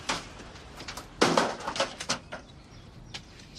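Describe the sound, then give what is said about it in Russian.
Heavy, irregular pounding on a door by Soprano, threatening to break the door, in a TV drama scene; a burst of loud thuds in the middle with quieter knocks before and after, without any voices. “Ну а Сопрано, естественно, ломится к Ирке. Открой, тварь, сломаю дверь.”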